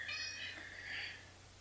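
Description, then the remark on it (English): A female cat meows twice as she arrives, a short nasal cry followed by a longer drawn-out one, over a low steady background hum. “Hey, our cat just arrived.”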